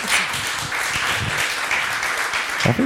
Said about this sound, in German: Applaus